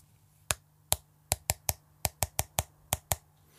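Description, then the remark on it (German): About a dozen sharp knocks in quick, slightly uneven succession, each crisp and distinct, over a faint steady hum with no voices; knocking at a window, where a bird sat on the windowsill outside. “Da hörte Lars wieder das Klopfen.”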